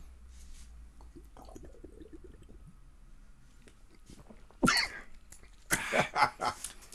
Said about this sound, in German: Gleich einen falschen Hals gekriegt hier.